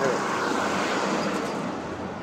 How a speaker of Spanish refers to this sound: Aquí ya estoy en la avenida. en esta avenida hay más gente y hay más coches y más automóviles como este.